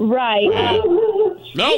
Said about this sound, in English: That's my dog. Sorry. That's Momo. It's out again.